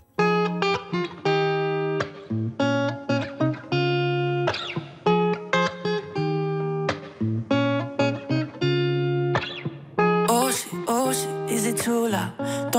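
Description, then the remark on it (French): Bright synth chords pulse in short rhythmic stabs in an electronic pop intro, loud and up front, building to a brighter, fuller burst near the end. No one speaks. “il vient de sortir un nouveau tube qui est le son du jour ce matin dans Summertime”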